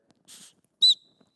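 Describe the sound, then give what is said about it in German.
A soft breathy rush of air, then one short, sharp high-pitched whistle that fades quickly, like a quick whistle of surprise, with no talking. “Das sind so die Momente, wo manchmal andere Leute dann plötzlich so einen Pfeifen-Effekt bekommen.”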